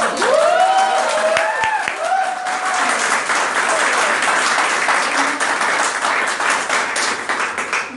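An audience applauds steadily for about eight seconds, a dense wash of clapping, with a few cheers and whoops rising over it in the opening seconds.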